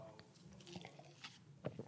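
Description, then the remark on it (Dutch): Someone takes a quiet sip of water: a few soft, wet mouth clicks and a gulp spread over a couple of seconds, with no talking. “Even een slokje water dus door.”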